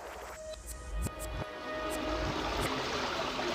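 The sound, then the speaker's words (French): Water washes steadily, like gentle waves on a private beach, with a soft continuous rush and a few brief splashes or taps near the start. It is fairly quiet, with no voices. “Tu reviendras rencontrer des amis en écoutant le chant des vagues avec moi”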